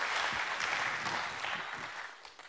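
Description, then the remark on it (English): A crowd applauds steadily, a dense wash of many hands clapping at a fairly loud, even level that eases off slightly toward the end. “Give her a big round of applause, everybody.”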